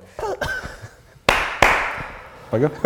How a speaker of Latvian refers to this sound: Vairāk nav tikai viens aplauss. Jā. Nu, viņš aplaudē, bet principā tikai viena aplausa nav vērts. Kaut kad varbūt zina, ka nav vienā brīdī varētu divreiz aplaudēt.